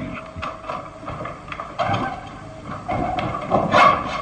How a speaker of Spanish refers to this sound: Los viejos goznes de la puerta gimen, haciendo estremecer a Lucas Van Doren, quien se siente mal.